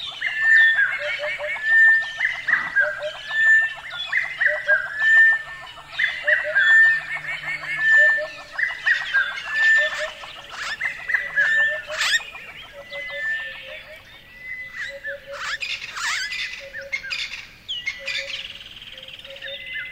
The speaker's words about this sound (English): In particular, also because um, the time of the year when they organize this workshop is the beginning of summer in the southern hemisphere. So that means that you have lots, lots and lots of really active bird life